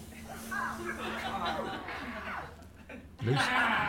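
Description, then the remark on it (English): A crowd vocally imitates someone nicking themselves while shaving, a jumble of overlapping yelps and murmurs with scattered chuckles, ending in a louder burst of voices. “Um, is it uh, someone cutting themselves shaving?”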